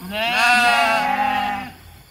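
A single long sheep bleat, loud, with a wavering, nasal tone that holds for over a second before cutting off. No one speaks.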